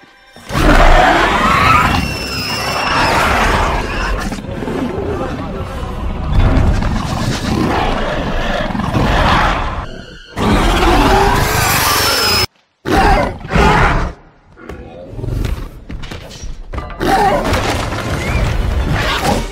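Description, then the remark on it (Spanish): The Indoraptor, a film dinosaur hybrid creature, lets out a series of loud, rasping roars and piercing shrieks, edited into several bursts separated by brief silences, with booming low rumbles underneath and no talking. “habéis escuchado sus rugidos y los chillidos”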